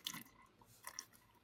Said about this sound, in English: Okay. And here we go. Let... Oh, he's taking a sip. Oh, hold on. Listen.